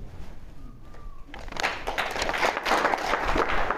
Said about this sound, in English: Stop, please. See, when you get around a bunch of uh, older Republicans and you mention St. Reagan, it's a good way to get some applause.